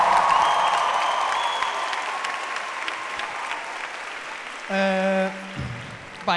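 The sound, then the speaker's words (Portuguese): A live crowd claps and cheers loudly, the applause sustained and fading gradually, followed by a brief whistle-like tonal burst near the end. “Uh, este aqui é ao vivo, portanto, queria só pedir à sala que fizesse um pouco de barulho para, para se saber.”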